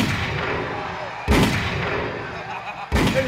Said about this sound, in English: And he did it while his DJ was firing shots in the background. Not literally, but you'll hear what I mean.